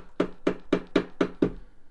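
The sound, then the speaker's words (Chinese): Six hurried knocks on the front door of a beauty and hair salon in Nancheng county town at 3 a.m. on May Day 1999, evenly spaced about a quarter second apart, each a sharp, solid thud with a brief ring, sounding alone with no voices. “南城县县城某美容美发厅的大门忽然响起了急促的敲门声。”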